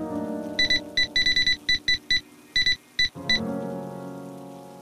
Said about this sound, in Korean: 그때였다. 또다시 들려오는 미친 것 같은 삐빅하는 소리.